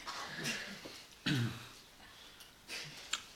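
A dog named Forest grumbles softly in a few short, low, throaty bursts, the loudest about midway through, with quiet breathy pauses between and no talking.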